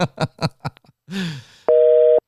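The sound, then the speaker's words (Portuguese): A loud, steady telephone busy tone, heard when a phone call is rejected, sounds for about half a second near the end, after a run of short choppy bursts and a brief noisy swoosh. “Põe no ouvido pra você escutar. Ih, rapaz, recusou.”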